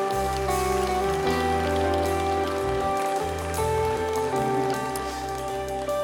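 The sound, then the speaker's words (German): An audience applauds God during a pastor's sermon, steady for about six seconds, a dense, even crackle of clapping hands over sustained keyboard chords humming underneath. “glaube, das ist ein Applaus wert für unseren Gott im Himmel.”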